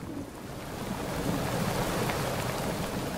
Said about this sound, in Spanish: El tiempo es tempestuoso, de pronto la mar se ha convertido en una vorágine de olas, de viento, que está haciendo zozobrar una goleta que vemos en el horizonte, no muy lejos del perfil rocoso de la bahía de Cartagena.